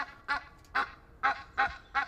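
An Egyptian goose, about 70 cm tall, honks loudly while puffing itself up, five harsh nasal calls in a steady, evenly spaced rhythm, with no talking.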